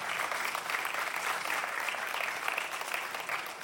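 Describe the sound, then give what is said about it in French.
Steady audience applause after a presentation fills the whole stretch, a dense, even patter of many hands clapping at a moderate level with no voices standing out. “On peut l'applaudir, je pense, euh, infiniment.”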